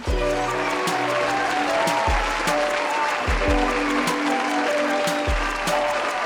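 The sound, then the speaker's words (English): Steady, dense applause fills the whole six seconds, a crackling wash of many hands clapping together over a sustained musical backing with deep, periodic bass notes. “those applause for me.”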